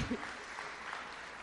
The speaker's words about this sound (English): You can give him a round of applause.